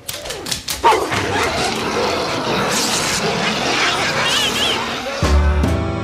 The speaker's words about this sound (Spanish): No quisiera que les muerda los tobillos. Vaya para allá, perrito. ¿Querés un palito? A ver, vaya para allá.